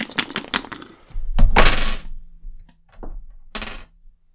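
Dice rolled in a game clatter across a hard tabletop in a quick burst of sharp clicks, then tumble and knock a few more times before settling. Fairly loud, with no talking.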